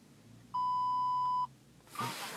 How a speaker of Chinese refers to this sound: 这样子我把那个安全带系上，系一下，不然它会叫。